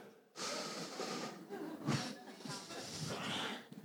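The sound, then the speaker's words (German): A voice imitates snoring with a few seconds of loud, raspy, breathy snorts, rough noisy pulses rising and falling. “Have you ever slept with somebody snoring?”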